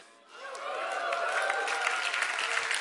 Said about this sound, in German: Haben wir einen guten Gott, dann darfst du jetzt mal jubeln.